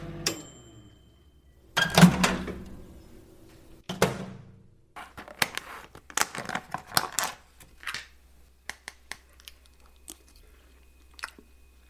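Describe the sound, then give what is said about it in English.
ASMR chewing of food on the show Comfort Eating: a loud bite followed by irregular bursts of crisp crunching and smacking, fading into quieter, scattered mouth sounds with no talking. “You thought we'd stop doing the ASMR chewing. We came back with even more.”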